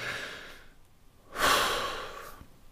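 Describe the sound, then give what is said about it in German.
Two slow, deep breaths: a softer airy inhale, a pause, then a louder, longer rushing exhale that gradually fades. No talking. “Während ich also die Klappe halte und tief durchatme, das stabilisiert mich, weil das scheiß Adrenalin und Cortisol und wie die ganzen Stresshormone heißen, die muss ich erstmal wegatmen, damit ich wieder einen klaren Kopf bekomme.”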